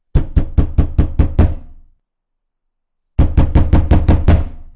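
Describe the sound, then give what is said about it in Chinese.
A man knocks loudly and heavily on a door off a dim corridor late at night, in two quick bursts of about six or seven evenly spaced thuds each, separated by a short silence, with no voices. “剧烈的敲门声从我身后传来。”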